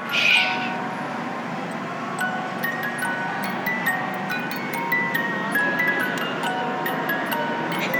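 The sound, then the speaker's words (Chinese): A wind-up music box tinkles out a slow, gentle lullaby, its bright plinking notes steady and fairly soft over a faint background hiss, with no talking. “因为这是要让你睡觉前可以听这个音乐”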